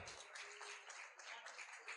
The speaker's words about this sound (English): Let's clap our hands and thank the Lord for his miracle touch. Come on.